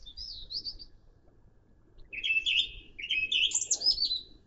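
Birds chirp and sing in bright, warbling bursts, a short phrase at the start and then a busier, overlapping stretch of song, with faint low background rumble underneath and no talking.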